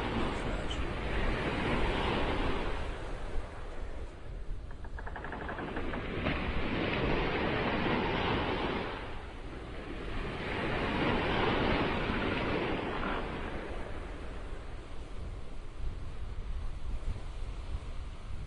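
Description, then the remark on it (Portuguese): Heavy storm waves surge and crash in repeated swells, each rising to a loud roar and falling back, over a constant bed of strong, rushing wind, rocking a ship from side to side. No one speaks. “Os fortes ventos e a agressividade do mar faz com que a embarcação comece a chacoalhar de um lado para o outro.”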